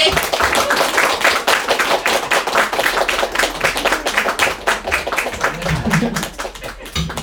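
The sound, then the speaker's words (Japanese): Steady applause from an audience welcoming a guest performer on stage, many hands clapping in a dense, continuous patter for several seconds, with a few voices cheering faintly underneath. “拍手をお迎えください。”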